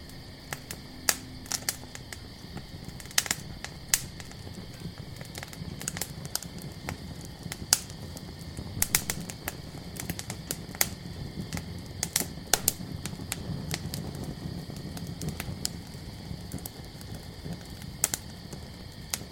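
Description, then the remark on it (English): A campfire crackles steadily with sharp, irregular pops and snaps, fairly quiet, over a constant high-pitched drone of crickets singing in the background. No one speaks. “Your breathing is slow and deep as you begin to drift off to sleep to the sounds of crickets singing and your fire crackling away.”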